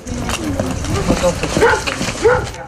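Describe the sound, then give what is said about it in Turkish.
A trained search dog of the Akut team, searching a village for a missing person, gives a few short, yelping barks spread unevenly over a couple of seconds against a busy outdoor background with indistinct voices. “Akut üyeleri Abdilbarut'a ait eşyaları koklattıkları eğitimli köpeklerle önce köyü taradı.”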